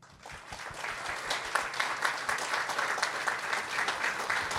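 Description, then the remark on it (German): A crowd claps steadily in sustained applause for four young people who read emotional texts on stage, a dense wash of many hands that swells in after a brief quiet start and stays even throughout, with no voices over it. “Also darum, ich möchte jetzt die nochmal aufgreifen und möchte auch nochmal, dass ihr diesen Vieren applaudiert.”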